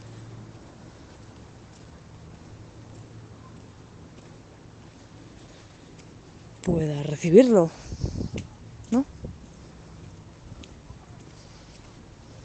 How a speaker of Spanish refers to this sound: Cuando llueve así flojo, es como si los charcos tuviesen pulgas, la verdad.